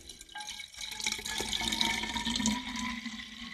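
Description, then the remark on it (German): Liquid pours steadily into a glass, a continuous gurgling splash with a rising tonal ring as the vessel fills, sustained for a few seconds with no talking. “Gut, ähm, das heißt, wir füllen jetzt einmal hier kurz ein.”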